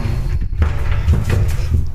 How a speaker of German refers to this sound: Wir öffnen die Duschkabine. Zwei Türen, die man sozusagen aufmachen kann.